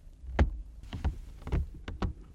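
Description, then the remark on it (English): A kitten claws at the carpet in a voiceover booth, producing a handful of sharp, raspy scratching strokes at an uneven pace, each a brief scrape against fibers, with no voices present. “clawing at the carpet in my voiceover booth.”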